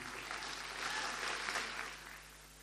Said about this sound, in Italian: Quindi un forte eh, applauso anche a loro.